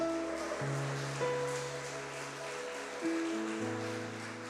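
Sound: audience applauding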